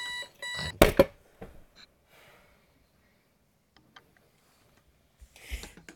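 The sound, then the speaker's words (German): An alarm clock rings in a brief, bright burst, cut off by a loud clattering hit as someone jumps out of bed and hits the alarm clock. A few faint knocks follow, and a short rustling noise comes near the end. “jemand, bei dem der Wecker einmal läutet und der aus dem Bett springt und auf den Wecker haut”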